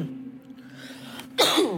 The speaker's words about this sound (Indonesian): Aduh, sorry banget guys, batuk ya.